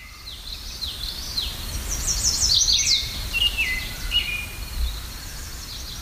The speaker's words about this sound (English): I'm going to take a moment here to just cue the birds.